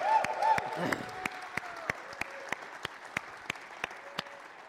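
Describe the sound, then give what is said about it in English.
Audience applause and cheering for the moms in the audience, over a wash of crowd noise, with a brief whoop near the start and one sharp, steady clap landing roughly three times a second as the clapping settles into a beat. “Moms, you be quiet, but all the rest of us, let's make some noise for all the moms in the room.”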